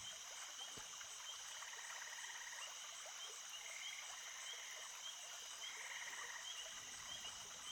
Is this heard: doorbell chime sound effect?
no